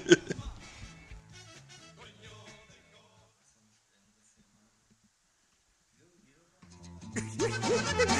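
A recorded norteño song fades out over a few seconds, followed by a brief silence, then a loud, full band tune abruptly starts up and continues to the end.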